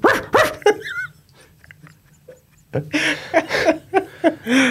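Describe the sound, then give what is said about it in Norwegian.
A person mimics a dog with a few sharp, loud barks, followed after a short pause by a burst of laughter and excited vocal sounds. “Det er en bjeffe, for å si sånn.”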